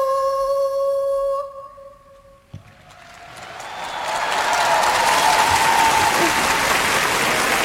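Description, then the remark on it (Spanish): A sustained sung note fades out, and after a brief hush a large audience's applause swells up and keeps building into loud, sustained clapping, a great ovation for a little girl. “Gran ovación para la pequeña”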